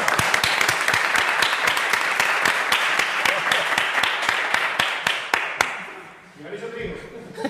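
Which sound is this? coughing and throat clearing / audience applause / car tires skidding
audience applause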